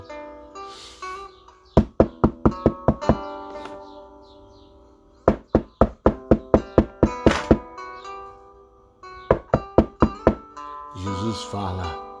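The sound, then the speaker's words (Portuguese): Firm knocking on a door comes in three quick rounds of several raps each, separated by short pauses, with a steady humming tone sustained underneath. “E o Senhor está batendo agora na porta do teu coração.”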